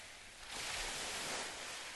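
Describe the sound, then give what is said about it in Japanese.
A steady wash of surf from a cold sea swells up after a brief quieter moment and holds as a broad, hissing roar of waves breaking on the shore, with no voices. “このまま冷たい海に入っていったらきっと”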